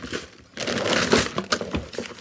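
Rummaging through a drawer of hoarded spare keys, searching for a key with a red keyring: a dense stretch of clattering, scraping and jangling with irregular metallic jingles. A short lull comes first, then the noise runs busily to the end, with no voices.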